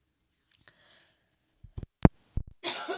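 A quick run of four or five sharp, harsh coughs, bunched together, ending in a rough, breathy hack. No one speaks.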